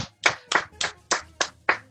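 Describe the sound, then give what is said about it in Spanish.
A short run of hand claps, about seven crisp, sharp slaps in a steady, quick rhythm, with nothing else heard between them. “Así que un aplauso, weón.”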